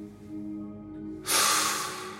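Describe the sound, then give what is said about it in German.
One deep, audible breath rushes in loud, a breathy burst of about a second that follows a quieter stretch with a low, steady hum underneath. “… atmet tief durch.”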